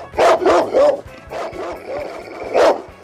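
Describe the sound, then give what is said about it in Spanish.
A dog barks loudly in a quick series of about four sharp woofs, then a short pause, followed by softer whimpering yelps and one last loud bark. “Despídase usted también, perro, ¿quiere?”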